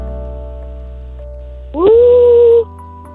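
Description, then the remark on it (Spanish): A child's voice lets out a single sustained, rising-then-steady howl lasting under a second, imitating a wolf when asked to, loud against a quiet background hum. “¿Puedes hacerle como un lobo?”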